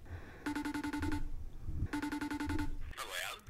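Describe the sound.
An outgoing phone call's ringing tone sounds twice, each a bright, rapidly warbling electronic trill lasting under a second, separated by a short pause. A voice briefly starts speaking just afterward.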